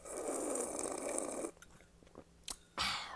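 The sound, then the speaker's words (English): A loud slurping sip of warm coffee drawn in for over a second, followed by a few faint clicks and a brief second slurp. “So, so I'm kind of a jerk, and y'all have to forgive me as I sip my coffee.”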